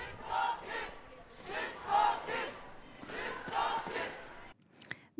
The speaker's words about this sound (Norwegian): Der hørte du et lite gjenhør med eh, helsebrølet som ble sendt på emneknaggen tidligere